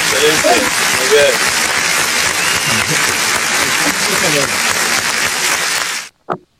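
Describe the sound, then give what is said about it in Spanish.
Steady, dense applause fills about six seconds at high volume, with voices cheering and talking underneath, then cuts off abruptly before a brief spoken word. “Con aplauso y todo.”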